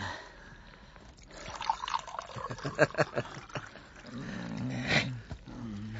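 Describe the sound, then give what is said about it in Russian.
A full glass of vodka is poured for a priest in a quick series of gurgling glugs and splashes that rise and fall over a few seconds, followed by a brief low murmur. “Налей-ка попу полный стакан водки.”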